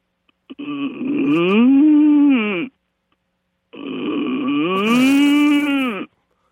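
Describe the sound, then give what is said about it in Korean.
A woman in her twenties who runs a clothing shop in Dongtan voices two long, drawn-out dairy cow moos as an encore, each lasting about two seconds with a rising then falling pitch, loud, separated by a short pause with no talking. “20대신데, 동탄 옷가게에서 젖소와 오리를 하고 계신 분입니다.”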